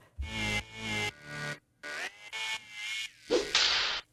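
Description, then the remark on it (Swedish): A short, punchy new feedback-segment jingle of five or six bright tonal bursts in a bouncy rhythm, capped by a loud whip-crack swish at the end; loud, with no talking over it. “och vi har ju en helt ny återkopplingsjingel och den låter så här.”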